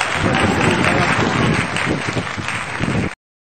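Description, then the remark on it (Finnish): A football stadium crowd at a Finland national team match that ended 0–0 roars and cheers in a dense, steady wall of noise. It is loud and unbroken for about three seconds before cutting off abruptly. “Totta kai, siellä on hirveä huut, Suomen huuhka ja huutomeri.”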